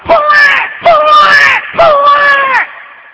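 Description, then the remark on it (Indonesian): A voice mimics a newborn baby's wailing cry in three long, loud, wavering bursts with brief breaks between them, alone. “Suantene napa? Kok bayi?”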